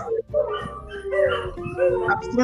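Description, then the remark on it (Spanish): Several dogs howl together in long, wavering, overlapping tones, fairly loud, set off by a passing ambulance whose siren drones underneath. “No, es que pasa una ambulancia y empiezan a aullar todos.”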